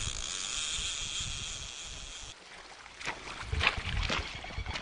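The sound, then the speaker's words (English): The braided, turquoise water of the Rakaia River on the Canterbury Plains rushes and flows steadily, a constant broad wash with a bright hiss early on, followed by louder splashing surges toward the end. No voices. “That's keen salmon angler Neville Ellis at a favourite spot on the Rakaia River the braided rush of turquoise water that acts as a natural southern border to the Canterbury Plains.”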